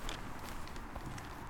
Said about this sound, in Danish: det var lyden af mig, der var ved at vælte. Øh, I skovbunden. I skovbunden. Lige her ved siden af, af bakken, for at gøre det rigtig spændende.